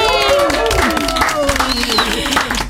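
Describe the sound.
A crowd applauds a guest singer with dense, continuous, loud clapping, mixed with cheering voices and a brief high whistle throughout.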